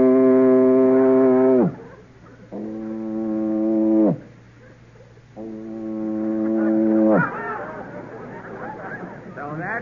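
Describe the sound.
A man's voice mimics a foghorn with three long, loud, low droning blasts, each ending in a quick downward slide, followed by a brief burst of rougher vocal noise.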